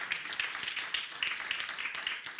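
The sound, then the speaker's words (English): An audience claps together as a hand clap of praise to God, a steady, dense burst of hand clapping, with many overlapping crisp slaps forming a continuous rattle at an even level. “Oh, come on, give God a hand clap of praise for that.”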